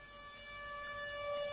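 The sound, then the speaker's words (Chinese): A steady, sustained train whistle in Yiwu, China, linked to the Yixin'ou train running direct to Spain, sounds on a few held tonal pitches, growing slightly louder over its short length, with no voices. “一声汽笛，古城义乌再度起航。”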